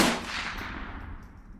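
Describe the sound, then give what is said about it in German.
A single sharp gunshot cracks loudly, then rolls away in a long, fading echo with a low rumbling tail. No voices are heard. “Auf jeden Fall hörte Beatrice aus dem Haus auf einmal lautes Geschrei, gefolgt von einem Schuss”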